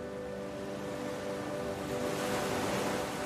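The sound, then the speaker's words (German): Steady ocean surf rushing and hissing, with a wave swelling louder near the end as it breaks. A faint sustained hum sits underneath, and no voices are present. “Lass dich von dem Rauschen der Wellen in den Schlaf begleiten.”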